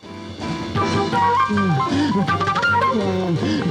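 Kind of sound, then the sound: flute played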